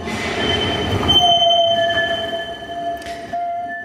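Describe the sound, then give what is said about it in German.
The wheels of a new tram in Bern, Switzerland, squeal on the rails in sustained, high-pitched whining tones that shift and overlap, over a low rumble of the moving vehicle, fairly loud with no talking. “Manchmal muss man die Hose auch noch ein bisschen umnehmen, unter, für das es super passt, respektive das Quietschen vom neuen Berner Tram die auch Bern verträglich ist.”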